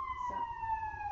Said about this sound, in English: Oh, siren.